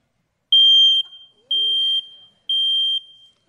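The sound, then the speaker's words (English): A smoke detector with a low battery chirps three loud, piercing high-pitched beeps, each about half a second long and evenly spaced, with no talking. “You know, the, the battery goes low, and in the middle of the night, they start chirping at you.”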